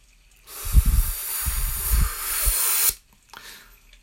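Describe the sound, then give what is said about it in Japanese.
A babbling brook and crackling campfire in a campsite-style background track: a steady, rushing hiss of flowing water with soft low pops and crackles, fairly loud, lasting a few seconds before cutting off abruptly. No one speaks. “今日は小川のせせらぎと焚き火の音がチルな感じで聞こえてくると思いますけどゴールデンウィークだからキャンプ場で収録している風の BGM を使っております”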